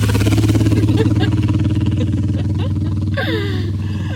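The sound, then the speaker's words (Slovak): A loud, throbbing motorcycle engine idles and revs as the rider heads toward the speakers, its low pulsing rumble filling the whole stretch, with a brief rise of higher, whining and clattering noise near the end. “Ale on ide na nás, pozor ten motorkár.”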